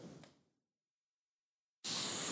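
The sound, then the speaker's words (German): A short noisy burst fades into silence, then a vacuum cleaner is switched on briefly as a demonstration, with a loud, steady roaring whoosh that fills the rest of the moment. “Und so ist es auch, den Staubsauger, so wie diese Wasserstrudel. Immer zieht dich unten. Ich will nur kurz, damit ihr auch hört.”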